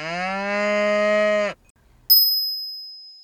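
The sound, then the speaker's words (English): A dairy cow gives one long, steady moo lasting about a second and a half, rich in harmonics, followed after a short pause by a single bright bell-like ding that rings out and slowly fades. “乳牛们马上召开紧急会议，所有的动物们都聚集到谷仓，想要偷听，但动物们都听不懂乳牛说的“哞”。”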